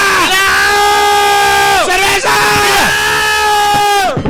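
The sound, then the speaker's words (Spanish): Several people yell together at full volume inside a house, sustained loud shouts that rise and drop in pitch in a few long bursts, overpowering. “Avisen cuando vayan a gritar así, se me saco los auriculares.”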